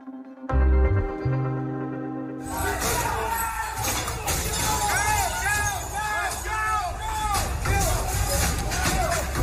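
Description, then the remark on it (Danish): A brief low tonal rumble gives way to a dense, loud crowd din, many voices shouting and clamoring together in a chaotic, continuous roar: a montage from 6 January 2021, when hundreds of Trump supporters stormed the US Capitol. “Øh, januar 2021, hvor hundredvis af Trump-støtter altså stormede den amerikanske kongres.”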